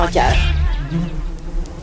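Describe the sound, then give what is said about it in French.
A steady, droning buzz of bees hums continuously throughout, with a brief voice-like sound at the very start. “Tu entends le doux bruit des abeilles derrière?”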